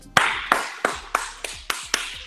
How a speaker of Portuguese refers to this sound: Palmas!